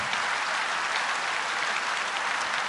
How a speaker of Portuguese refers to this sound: Aplauda a Deus.